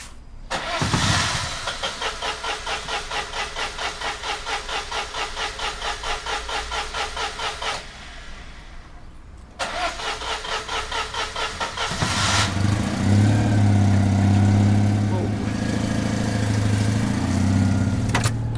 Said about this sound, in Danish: Jeg skal bare lige have den her bil ud. Okay. En gammel Citroën.